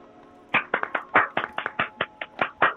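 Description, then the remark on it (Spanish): Hand clapping for the Irish audience: about a dozen sharp, fairly loud claps in a quick, slightly uneven rhythm after a brief quiet start, with no talking. “Un aplauso para los irlandeses, los flan, eh, estábamos, estábamos en 5% y ahora volvimos a subir a 6%.”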